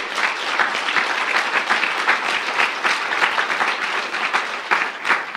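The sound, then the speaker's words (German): A crowd applauds all the children standing alone at the front to be blessed, with dense, overlapping claps forming a continuous wash of sound at an even, fairly loud level throughout, without any voices on top. “Und da wollen wir doch allen Kindern mal einen Applaus geben, dass sie so mutig sind, um hier alleine zu stehen.”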